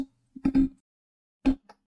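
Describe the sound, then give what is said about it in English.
Several heavy thumps and bumps as a microphone is knocked, arriving in two quick clusters with a brief gap between, loud and boomy with no talking. “Knocked my uh, my microphone.”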